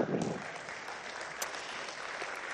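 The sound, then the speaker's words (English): An audience applauds after being told there will be three different speakers, a steady, dense patter of many hands clapping at once, sustained at an even moderate loudness throughout without a clear rhythm. “Uh, yeah, you could clap for that.”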